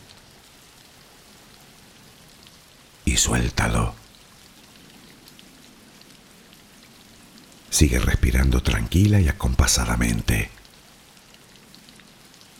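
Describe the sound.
Steady, even rain patters and hisses throughout, a soft continuous wash in the background while a calm voice speaks briefly twice over it.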